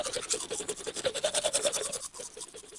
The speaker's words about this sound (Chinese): 于是，劳拉和那只狮子一起刷牙。